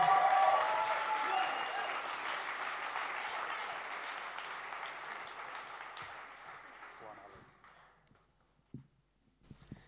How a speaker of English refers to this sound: So put your hands together for Ellie.